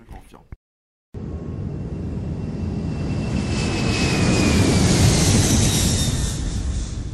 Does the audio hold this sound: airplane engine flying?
yes